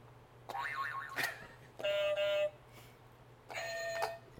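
Three different quiz buzzers are hit one after another by players testing them before a Tony trivia game, with short pauses between: first a warbling, springy tone, then a flat steady buzz, then a bright ringing beep, over a faint low hum.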